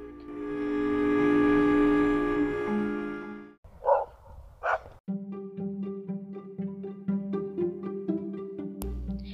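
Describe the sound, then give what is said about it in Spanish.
A dog, Capi, lets out two sharp barks on a rainy afternoon after a long, steady droning tone, and then a soft run of musical notes plays on. Nobody speaks. “Oí ladrar a Capi.”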